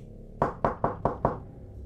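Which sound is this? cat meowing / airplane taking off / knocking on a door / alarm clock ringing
knocking on a door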